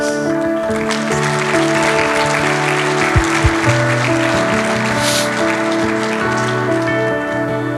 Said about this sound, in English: Yeah, good morning, church. Round of applause for all those testimonies. Hasn't been that been amazing?